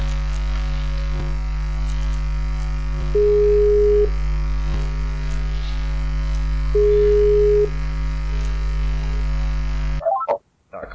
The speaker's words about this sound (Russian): О, у меня почему-то скайп теперь еще звонит на этом. На, Я даже с этим. На телефоне, да.